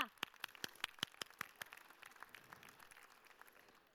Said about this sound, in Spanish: Bueno, un aplauso para a miña nai tamén, se non se cela. A ver, levántate.